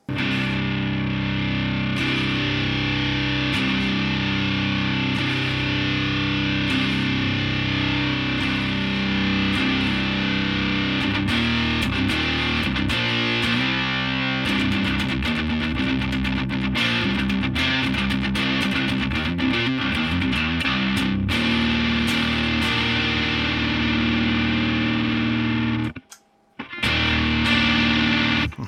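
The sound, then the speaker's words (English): A driven electric guitar played through an isosceles boost pedal from Sound of Justice FX, thick and saturated with sustained chords and quick picked runs, loud and continuous with a brief cutout near the end. “But then we can also see uh, how precise we can get with our isosceles boost.”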